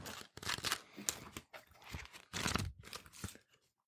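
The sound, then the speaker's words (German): Rapid papery rustling of the pages of two paper flip blocks being flipped through, in several quick bursts over a few seconds, loud and crisp with no voices. “Darf dafür, dass sie durch das Blättern von zwei Blöcken hergestellt wurde, ist das eine bemerkenswert äh, vielschichtige ja.”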